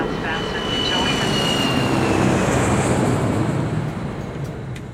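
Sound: airplane engine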